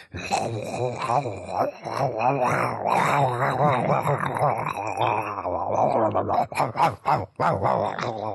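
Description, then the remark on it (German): A person's voice imitates a tiger's growl, a long rumbling, guttural snarl held for several seconds, then breaking into a few shorter rough bursts near the end, loud. “und dann hört man halt die ganze Zeit den Tiger und der Tiger macht die geilsten Geräusche ever.”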